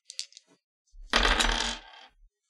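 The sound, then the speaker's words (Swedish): A few light clicks, then a bright clattering rattle as a player's die is rolled for a sneaking check, tumbling across a hard tabletop for about a second before settling, fairly loud, with no talking. “Du måste slå slaget också. Ja, Det är min tärning här.”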